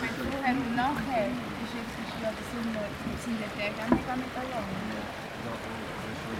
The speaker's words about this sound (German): Jetzt bin ich auch wieder auf Steinboden und das Wassergeräusch wird langsam lauter. Genauso wie ich mich bewege. Jetzt haben wir links diese kleine Murmelgruppe.